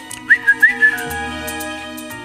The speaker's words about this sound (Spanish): mientras silbas como, como si llamaras al perrito, ¿eh?